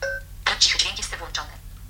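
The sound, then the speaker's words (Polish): A brief beep tone gives way to a short, tinny synthesized voice from a smartphone speaker, spoken so its volume can be adjusted, fairly loud, lasting about a second. “Jeśli chcę go ściszyć, musi znowu coś do mnie powiedzieć”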